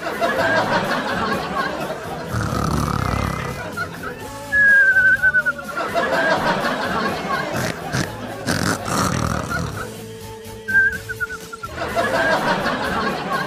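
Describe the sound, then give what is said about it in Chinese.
A high-school deskmate fakes snoring over a classmate napping near the end of a class, with snorting rasps and thin whistling tones repeated over several breaths, mixed with snickers and laughter. “到了快下课的时候啊，没节操的同桌居然给我配音打呼噜。”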